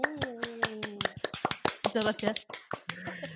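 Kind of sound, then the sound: human body sound, hand clapping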